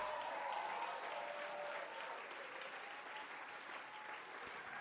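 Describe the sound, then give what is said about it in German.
A crowd applauds steadily for several seconds, a dense, even patter of many hands clapping at a fairly constant loudness, with no voices standing out. “Komm, wir geben ihm einen Applaus.”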